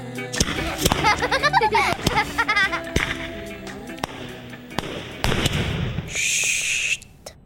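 firecrackers exploding

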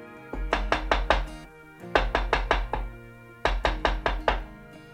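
knocking on a door

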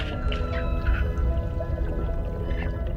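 dolphin clicks and whistles

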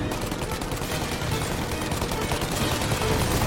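gunfire

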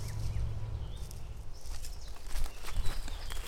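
footsteps walking

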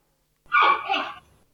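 giant panda vocalizing

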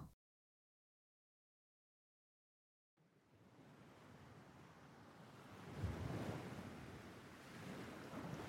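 sea waves ambience

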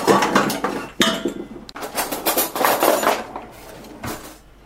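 dishes and cutlery clinking

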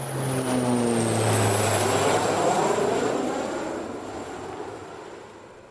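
airplane engine flying

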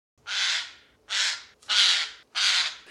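eurasian jay call

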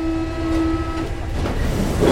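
metro train running

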